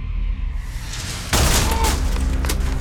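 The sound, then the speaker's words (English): After a low rumble, a sudden loud blast erupts into a dense burst of rapid gunfire with sharp explosive stun-grenade bangs, intense, continuing to the end, as armed units storm a house with gunfire on every floor. “Immediately there's gunfire on every floor. Stun grenades explode.”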